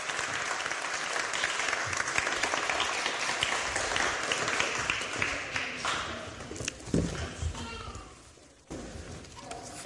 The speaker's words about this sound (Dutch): Groot applaus voor onze lieve kinderen en tieners.